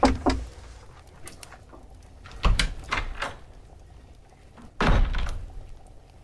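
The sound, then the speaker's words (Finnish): A door opens as someone comes in to a room of a humble cottage in a radio play: a handful of dull wooden thunks and clunks spaced unevenly, the last one heavier, with quiet stretches between and no talking. “Eenokki tulee.”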